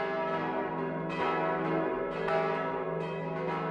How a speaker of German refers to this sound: Das Mittagsläuten aus Waldershof